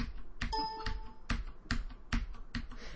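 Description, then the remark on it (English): Sharp keyboard key clicks strike at a steady, fairly quick pace, about six in three seconds, crisp, as someone presses A and B keys in a colour-square reaction test, with a short electronic tone sounding briefly near the start. “So there are these stupid little tests like you know click a if you see um you know a red square, and click B if you see a blue square, and uh, so you're sitting there, and it just sounds like this.”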